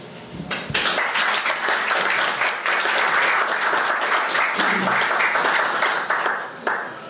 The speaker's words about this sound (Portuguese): pedi uma salva de palmas para o senhor chefe de divisão que está ali, que deixou os funcionários virem cá na sexta-feira